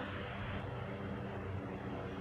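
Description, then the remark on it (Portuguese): A helicopter passes by, its engine a steady, low, rumbling drone that fills the whole stretch with no talking. “aí eu escuto um helicóptero passando.”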